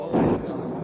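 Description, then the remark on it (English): A short, deep rumble of thunder swells quickly and then settles into a lower, steady grumble, lasting under a second. “like a storm.”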